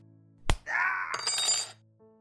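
A sharp impact as a spoon is thrown at a man's back, followed by about a second of bright metallic ringing and clattering clinks that fade out. No voices are heard.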